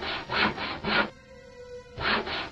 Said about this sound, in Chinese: 咯吱咯吱，又是那锯东西的声音，而这个声音出现的位置，正是我的身后。